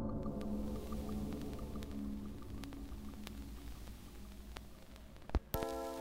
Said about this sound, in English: What's going on? I can hear vinyl crackle.